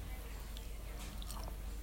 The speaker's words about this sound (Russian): Блин, ну я, конечно, классно тут жую очень. Очень классно жую в процессе записи.